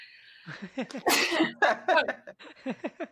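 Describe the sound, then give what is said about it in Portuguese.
A single sharp sneeze bursts out mid-clip, with a brief breathy buildup before it and short chuckling laughter on either side. “Saúde.”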